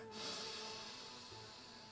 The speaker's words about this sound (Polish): I proszę skupić się na oddechu. Jeszcze raz. Wdech.